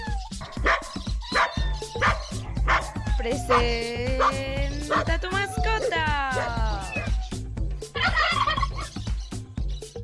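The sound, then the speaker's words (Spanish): A four-year-old female boxer dog barks loudly and repeatedly, breaking into drawn-out, wavering yowls and whines midway before a final burst of rough barking. “Es una perrita de raza boxer, tiene 4 años y es muy juguetona.”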